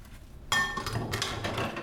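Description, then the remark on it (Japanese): Dishes being washed with dish detergent: a sudden bright clink of tableware, then steady clattering and rushing noise like running water. No one speaks. “洗う音｜食器洗い洗剤”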